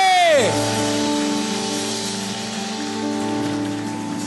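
A church audience raises their hands and claps steadily in a dense, continuous wash, mixed with sustained keyboard chords that follow a quick downward-sliding tone at the start.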